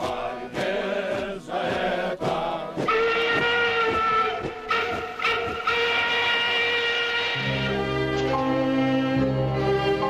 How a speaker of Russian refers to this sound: отошел от станции. Вот проплыл и штабной вагон с прибитым к нему фанерным щитом.